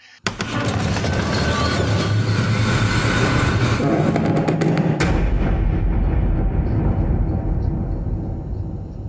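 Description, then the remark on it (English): A heavy dungeon door grinds and clanks before slamming shut with a loud, booming impact, followed by a deep echoing rumble that slowly fades. No voices are heard. “So I think we should slam the door shut, which is our spoiler alert.”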